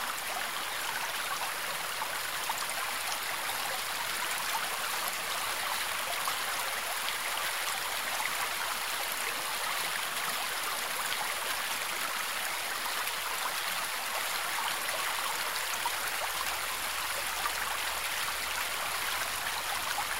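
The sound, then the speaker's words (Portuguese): A small stream flowing into a pond surrounded by flowers of many kinds and colours flows steadily with a continuous bright, hissing babble of water, even throughout, with no voices. “chegamos a um pequeno córrego que deságua numa lagoa rodeada por flores dos mais variados tipos e cores.”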